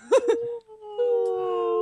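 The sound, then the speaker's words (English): A person mimics whale calls with their voice: two short wavering hoots, then a long, steady, droning moan. “Do stereo do stereo whale noises.”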